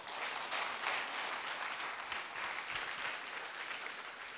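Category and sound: crowd, audience applauding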